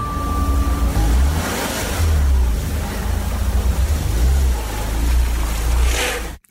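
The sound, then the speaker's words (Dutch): A car engine revs and idles as the car is parked in a parking garage, rising and falling in uneven surges over a steady low rumble; no one speaks. “Zo, die is geparkeerd. Toch altijd weer gedoe om je auto vlotjes en netjes zo'n parkeergarage binnen te rijden.”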